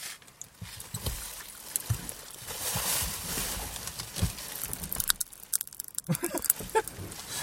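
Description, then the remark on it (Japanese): Popping candy crackles in someone's mouth close to the microphone, a dense, irregular stream of tiny sharp pops and fizzing snaps that grows busier toward the end, with no one talking. “いいのこれパチパチ音聞かせて。”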